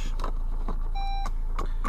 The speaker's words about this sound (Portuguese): Deixa-me só aqui ligar a puta do carro.